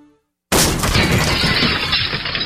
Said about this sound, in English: That's what it sounds like when a burglar kicks in the door of a dark house that looks like no one is home.